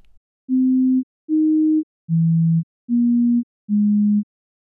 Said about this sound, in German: Es beginnt mit einer Tonfolge, die völlig zufällig vom Computer erzeugt wird. Die Töne gehören nicht einmal zu einer bestimmten Tonleiter, deshalb klingen sie für unsere Ohren ein bisschen schief.